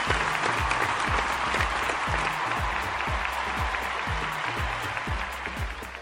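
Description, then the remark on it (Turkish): A dense, steady burst of crowd applause, used as a sound effect, fills the whole stretch, loud, with a regular low thumping beat pulsing underneath. No one speaks. “Ben de seni alkışlarım Aslı.”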